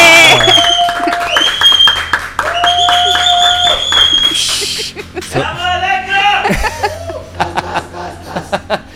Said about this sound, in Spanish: En este caso vamos a recibir con un fuerte aplauso y una bulla a ….